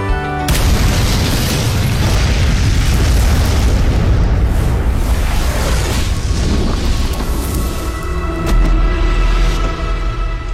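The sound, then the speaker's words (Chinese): A pressure-cooker bomb explodes on a bridge beside a bus surrounded by police cars, in the TV drama Reset (开端). The loud explosion keeps rumbling with a dense, sustained roar and crackling debris for several seconds, then a second burst near the end before a low rumble lingers. “老张被近距离爆炸波及，倒在地上，生死未卜。”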